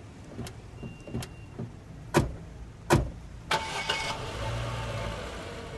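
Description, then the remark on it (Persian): A car door shuts, a few clicks and thumps follow, then the engine of a big, fancy car cranks and starts, settling into a steady running hum as the car pulls away for a drive. “دوست داری با هم با ماشین یه گشتی بزنیم؟”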